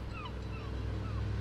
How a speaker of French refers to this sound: C'est le bruit du moteur qui attire l'attention du groupe, avant même de voir la sécu du club remorquant le dernier catamaran.